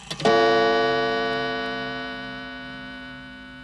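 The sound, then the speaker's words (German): A single gong strike rings out loudly as a short transition sting, its rich metallic tone sustaining and fading slowly over several seconds with no talking. “Und jetzt gibt es wieder einen Gong und dann folgt das Outro und die Verabschiedung von der heutigen Sendung.”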